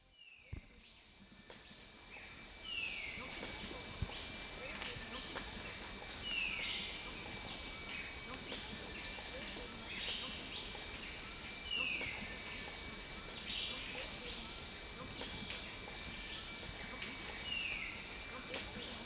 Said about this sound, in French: Et pour continuer dans la forêt, voici quelques minutes de forêt en Malaisie.